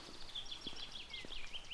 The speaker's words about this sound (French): les oiseaux sont au rendez-vous.